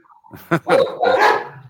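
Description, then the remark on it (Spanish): Several dogs bark in quick, overlapping bursts, fairly loud, their yaps running together as the dogs fight. “Los ladridos de tus perros están peleando, dice.”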